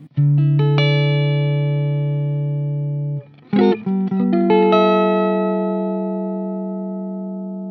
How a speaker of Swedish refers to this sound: Och den där har ju ett helt just den där gitarren har ju ett helt otroligt sustain.